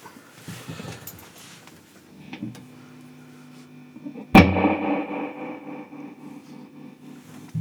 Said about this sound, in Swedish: Jag vill ha, lite, jag vill ha reverb, mycket reverb och tremolo. Så ska jag spela ett stort fint ackord som avslutning